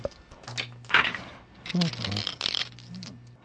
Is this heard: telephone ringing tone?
no